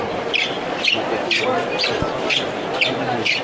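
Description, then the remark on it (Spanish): Rope-soled espadrilles of costaleros (bearers) carrying a long Holy Week paso during a Holy Wednesday procession shuffle over a wax-coated street in a steady rhythm, about seven soft scraping swishes, roughly two per second, over a low continuous background murmur. “suelo cubierto de cera que le da también ese sonido característico a la alpargata de costalero y este paso es largo.”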